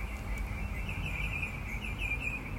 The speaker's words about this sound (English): Listen to those birds. Oh my God, they're gorgeous.